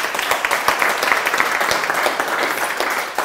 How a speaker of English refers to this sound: Give these ladies a round of applause, okay?